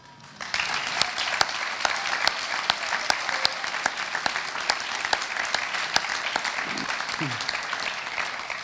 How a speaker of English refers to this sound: So I'd like to applaud you.